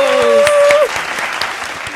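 Loud, welcoming applause from many hands, dense and steady for the whole stretch, with a sustained high cheer or whistle riding over it during the first moments before fading out.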